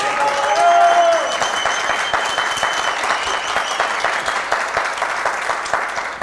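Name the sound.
audience applauding and shouting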